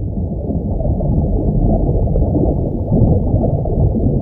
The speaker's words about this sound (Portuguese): Primeiro, pausa para hidratação.